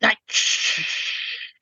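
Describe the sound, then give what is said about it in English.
A voice imitates the white noise of a spirit box with a long, steady hiss, like a drawn-out "shh," after a brief breathy onset, lasting just over a second and fading out. “Now, of course, when you listen to a spirit box, and yes, I have one that I think is very entertaining to play with, it essentially sounds like a lot of white noise, occasionally interrupted by a word.”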